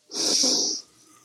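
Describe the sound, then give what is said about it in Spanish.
A single deep, rushing breath drawn in through the nose on a count of three during a guided breathing exercise, fairly loud, lasting under a second before fading into quiet. “Cuando cuente tres, vamos a respirar profundo y saltar Estamos del agua como un delfín. Uno, dos, tres, inhala.”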